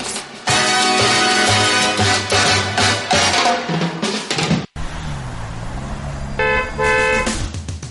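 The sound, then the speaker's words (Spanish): Several car horns honk loudly and overlap amid busy traffic noise in a traffic jam, then after a brief cut an engine rumbles low as a few more horn blasts sound near the end. “Atascada en el tráfico”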